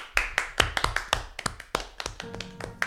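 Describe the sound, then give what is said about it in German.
Hand clapping: a dozen or so sharp claps in a loose, slightly uneven rhythm, like one or two people applauding briefly, with no voices. “Super. Applaus.”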